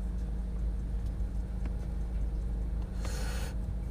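Steady low traffic rumble from cars on a road in the morning as essential workers get to work, with a brief louder whoosh of a vehicle passing near the end; no one speaks.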